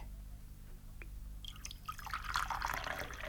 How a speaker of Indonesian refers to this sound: Kita dapat menuang teh dan merasakannya.